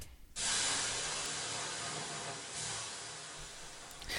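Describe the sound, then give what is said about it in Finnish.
A loud, sustained hiss of steam bursts up as water hits a hot sauna stove, holding steady for several seconds with a slight swell midway before tapering. “Mutta tässä vaiheessa heitämme kiukaalle vettä ja jatkamme matkaa.”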